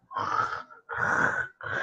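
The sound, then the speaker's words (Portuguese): A person loudly imitates snoring with their voice, making three rough, rasping snore sounds in a steady rhythm, each separated by a short pause, unaccompanied. “Um ronco do caralho.”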